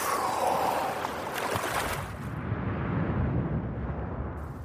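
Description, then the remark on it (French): Freediver Guillaume Néry, four-time world freediving champion, takes a deep, forceful breath that fills the first two seconds with a loud, rushing hiss, then gives way to a steady, muffled low rumble with no voices. “Il a été champion du monde d'apnée quatre fois avec ce souffle-là.”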